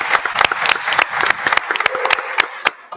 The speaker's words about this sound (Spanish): Primer, programa, presencial. Un aplauso por eso.